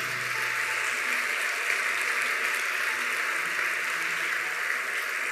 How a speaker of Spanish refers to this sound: Aplausos de felicitación a todos ellos.